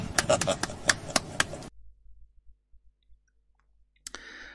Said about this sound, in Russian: О, какая шутка, какая шутка. Я просто похлопаю.